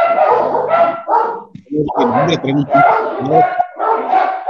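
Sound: dogs barking indoors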